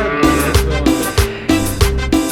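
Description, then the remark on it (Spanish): A cow moos in a loud, drawn-out tonal call, accompanied by a steady rhythmic thumping that repeats about every half second. No one speaks. “Ponos la vaca.”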